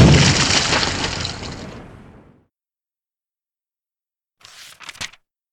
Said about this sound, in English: The grip on Lex's head vanished just as the wall behind him shattered outwards with a rush of air.